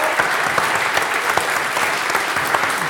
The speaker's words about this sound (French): Vous pouvez les applaudir, elles sont là.